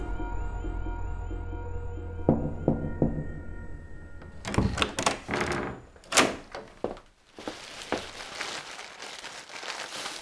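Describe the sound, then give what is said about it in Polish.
A door opens quietly with a few soft thunks and knocks over a low steady hum, with footsteps, followed by a continuous crinkly rustling of a plastic shopping bag being handled. “Cicho otwierają się drzwi, słyszę kroki, szelest reklamówki, pocałunek. Trwa to 10-15 sekund.”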